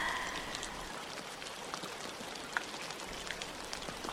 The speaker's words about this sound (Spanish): Afuera llueve. El clima comienza a cambiar. Puedes escuchar a lo lejos la lluvia.